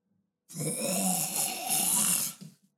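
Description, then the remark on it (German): A voice imitates a monstrous hiss with a wet, gurgling rasp, one sustained breathy snarl lasting about two seconds, fairly loud, trailing off into a couple of small grunts. “du hörst hinter dir ein Geräusch. Es ist ein gurgelndes Fauchen”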